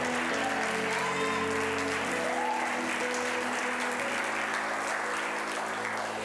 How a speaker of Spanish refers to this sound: Así que mucho ánimo y mucho entusiasmo. Si le va a aplaudir, apláudele con mucho ánimo y con mucho entusiasmo.